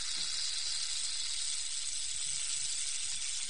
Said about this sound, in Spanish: La serpiente parecía un arcoíris juguetón cuando sonaba su cola de maracas.